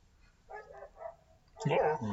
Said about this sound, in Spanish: pinches perros, güey. No hay pedo. Ya es la hora de los perros. Es la hora del podcast de los perros que nos va a relatar cada moto que pase.